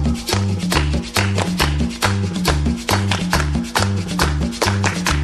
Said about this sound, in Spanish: Bien, bien, bien, bien, muchachos, con las palmas al ritmo, con la palma al ritmo.